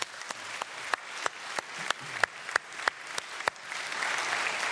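An audience applauds steadily for several seconds, a dense patter of many hands with a few sharp, close claps punctuating it, the sound thickening slightly toward the end.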